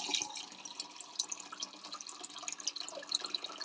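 450 cc of drinking water pours steadily into a glass measuring cup, a continuous bright splashing and trickling with small bubbly peaks, fairly even in loudness throughout, with no talking over it.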